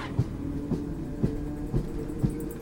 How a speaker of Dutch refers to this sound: en de trein doorklieft de oude mijnstreek van Sardinië.